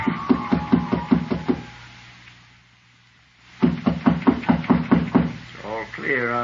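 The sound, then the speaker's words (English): Footsteps thud in a quick, steady rhythm, pause for a moment, then resume and come to a halt outside a door, followed by a brief wavering voice-like sound. “Footsteps again. And this time they stopped outside my door.”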